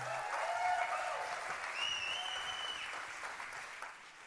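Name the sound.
thunderous audience applause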